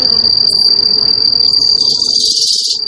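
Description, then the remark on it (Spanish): A steady, high-pitched drone of insects chirping continuously, loud, with a soft low rumble of background ambience underneath and no voices. “De muchos insectos depende la polinización de las plantas que nos alimentan.”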